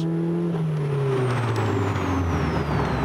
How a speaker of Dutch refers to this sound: Ja, het motorgeluid die krijgt wel een hele mooie nadruk hier. En dan van die lekkere, lekkere plofjes als je het gas loslaat.